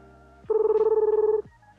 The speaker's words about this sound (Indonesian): Kita telepon dulu. Halo, ternyata ada telepon beneran.